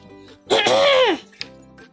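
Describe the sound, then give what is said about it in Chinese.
A person imitates a woolly mammoth coughing with one loud, drawn-out, throaty burst whose pitch rises and then falls, lasting under a second, followed by quiet with a faint click. “长毛象咳嗽了几声”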